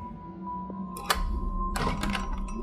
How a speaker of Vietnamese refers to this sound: tiếng chốt cửa được mở ra Cái mị hé cánh cửa rồi từ từ bước ra bên ngoài